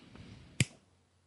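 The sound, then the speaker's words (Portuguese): A single crisp finger snap rings out, a sharp isolated click against a quiet background with no talking. “um estalo com o dedo. Você sabe estalar com o dedo?”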